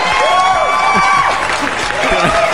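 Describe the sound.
Steady applause fills the whole stretch, a dense wash of clapping with voices calling and whooping over it at a constant, fairly loud level.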